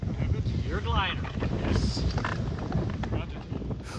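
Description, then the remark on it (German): Steady wind blows over the California dunes, roaring across the microphone in a dense, low rumble that barely lets up, with a voice faintly present underneath. “Freie Flugbahn, konstanten Wind und wenig Vorschriften.”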